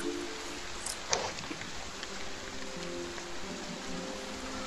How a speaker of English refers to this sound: Probably not the best idea to be flying around at the with the with the rain. Okay. Rain coming I just wanted to be sure.